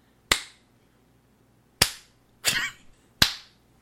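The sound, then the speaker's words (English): A slow clap sound effect: four sharp, loud hand claps spaced unevenly over a few seconds, the third a bit rougher and longer, with quiet gaps between and no talking. “Slow clap. Never gets old, does it?”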